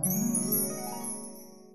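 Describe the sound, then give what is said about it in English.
A shimmering, tinkling chime swells and slowly fades, bright bell-like tones ringing together over a sustained lower hum, like a dreamy flashback transition effect with no voices. “Flashback sound. Another flashback.”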